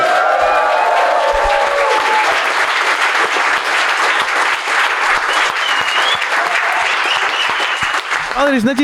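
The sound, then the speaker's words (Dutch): Loud, sustained applause from a live audience at the show Voor de Show as a colleague is brought on: a dense steady patter of many hands clapping with some cheering mixed in, fading into a voice at the very end. “En een collega van ons die we erbij gaan halen en nog harder applaus voor gaan vragen.”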